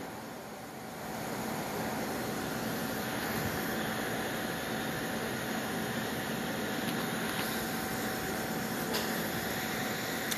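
A helicopter patrolling back and forth overhead at about 10:43 p.m. drones in a steady, continuous roar that swells slightly after the first moment and holds at a constant level, with no voices.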